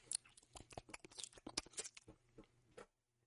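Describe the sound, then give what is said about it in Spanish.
A voice imitates the sound of moving through pipes in a video game: fairly quiet, rapid crunchy clicks and scraping mouth noises run for about three seconds, then stop. “cuando, te mete, cuando te mueves y vas por las tuberías, vas sonando como.”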